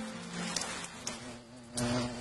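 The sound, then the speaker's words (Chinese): A bee buzzes steadily with a low, droning hum that wavers slightly in pitch, swelling louder toward the end, with a few faint clicks along the way. “突然，小蜗牛爬爬听见身边有一阵轻微的声音，它扭头一看，咦？身边什么时候多了小蜜蜂嗡里？”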